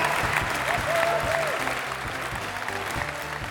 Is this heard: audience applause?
yes